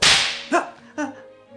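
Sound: whip crack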